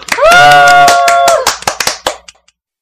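A quick burst of irregular hand claps, sharp and loud, after the members of a band introduce themselves, lasting about two seconds and thinning out at the end, with a drawn-out vocal cheer ringing over the first half.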